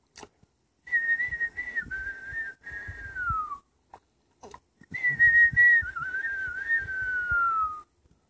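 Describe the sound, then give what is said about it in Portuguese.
A person whistles a bird-like song in two long warbling phrases, each holding a steady tone that slides gently downward, separated by a short pause; fairly loud, with no talking. “Ele se sentou lá, escutou o passarinho assobiar.”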